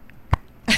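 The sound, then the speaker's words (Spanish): A folded silicone menstrual cup pops open with a single sharp snap, followed a moment later by a short breathy rustle. No one speaks. “Se adapta. incluso suena así, mira. Y se abre adentro.”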